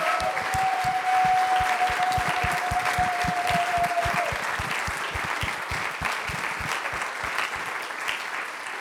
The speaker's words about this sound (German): Und deswegen lasst uns mal diesen Moment nehmen und allen Menschen, die herzliches Erbarmen mit anderen haben, von Krankenschwester bis zur Rettungssanitäter, einen dicken Applaus zu geben.